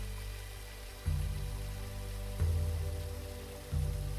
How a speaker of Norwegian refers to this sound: Det høres en svak bruselyd som blir kraftigere jo nærmere du kommer. Den høres sterkere og sterkere En foss kommer til syne, og den er kraftfull og vakker.